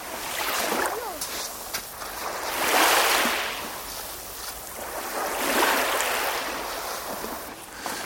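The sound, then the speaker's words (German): Waves roll onto a beach in a light breeze in slow, rhythmic swells, two broad surges of hissing surf rising and fading close to the microphone held right by the water, with faint bird chirps early on and no speech. “Er geht mit dem Mikro ganz nah ans Wasser ran”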